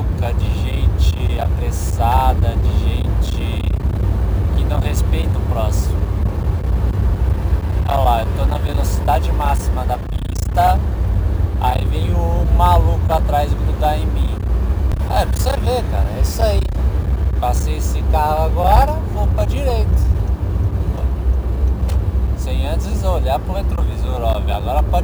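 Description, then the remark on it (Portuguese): Steady low road and engine rumble of a car cruising on a highway at 100, the road's limit, loud and unbroken, while a man talks over it from inside the cabin. “Ó, outro passou pela direita, bicho. Pode ir, Sarnaldo. Eu tô a 100. O cara tá a 120, 130.”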